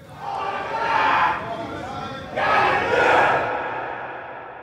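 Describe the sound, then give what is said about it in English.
A crowd of prisoners on a cell tier shouts together in two long, loud surges, the first swelling and fading before a second roar rises and slowly trails off, with no clear words. “I would grab the bars and like scream at the top of my lungs, you know, excuse me on the tier, excuse me on the tier.”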